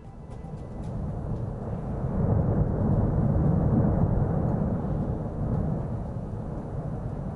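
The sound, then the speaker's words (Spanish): A deep, continuous volcanic rumble from the Cumbre Vieja eruption roars steadily, swelling louder through the middle before easing slightly, with faint crackling on top and no voices, at 7:09 in the morning on the 44th day of the eruption, as a column of ash rises. “Ese es el sonido de, Cumbre Vieja a las 7 y 9 de la mañana de este cuadragésimo cuarto día de erupción con una, con una nube una columna de, cenizas que se eleva hasta cuántos metros,”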